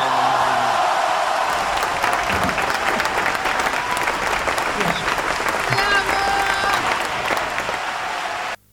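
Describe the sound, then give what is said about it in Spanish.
Sustained applause from a crowd, dense and steady clapping at an even loud level for about eight seconds before cutting off abruptly. “Esos aplausos son para vos, mi viejo.”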